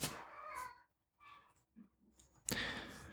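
A cat meows plaintively, two drawn-out, mournful cries with a quiet pause between, followed by a brief rustling burst of noise at the end.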